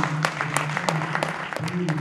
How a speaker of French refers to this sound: Donc euh, juste ça, ben, bravo à tous et rien que pour ça, merci, on peut s'applaudir aussi.